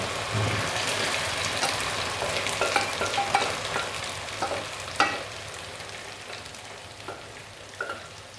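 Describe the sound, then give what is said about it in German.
Rice frying in a pan with leek, garlic and about 1 to 1.5 tablespoons of soy sauce: a steady, dense hiss of sizzling with crackles, broken by a few sharper pops and stirring scrapes. No one speaks. “Jetzt schütte ich das restliche Wasser aus dem äh, Topf von dem, vom Reis und dann kommt ähm, der Reis zusammen mit der Sojasauce.”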